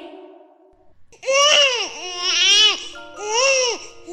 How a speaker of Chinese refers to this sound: 一阵响亮的哭声回荡在城堡的走廊里。国王和王后迎来了一位皇家小公主的诞生